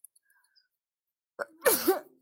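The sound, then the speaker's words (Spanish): A single loud sneeze: a short sharp intake of breath, then an explosive burst of noise with a voiced tail that fades quickly into silence. “ay, perdón, no crean que tengo COVID, la gente estornudamos normalmente y este, y pues no pasa nada por estornudar.”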